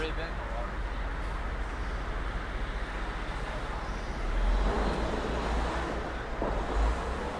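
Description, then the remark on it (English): A tour bus rumbles past on a busy street in New York, its low engine drone swelling louder around the middle before easing off, amid steady traffic noise and faint indistinct voices. “And there's one of the many tour buses that hang out over here.”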